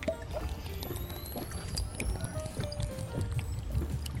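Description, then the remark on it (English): Water pours steadily over a coffee pod for several seconds to make coffee, a continuous trickling and splashing with faint gurgles, heard on its own without any talking. “Now that you've woken back up from your sleep, final step water.”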